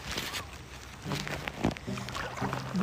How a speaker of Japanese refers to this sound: うわこのチャプチャプ音聞こえますかねすごいですよ